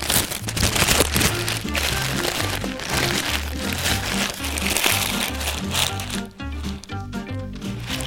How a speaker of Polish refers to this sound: zawsze się znajdzie ktoś, kto tego batona nie będzie potrafił zjeść jak człowiek, tylko będzie musiał tym jebanym szelestem zagrać muzykę swojego ludu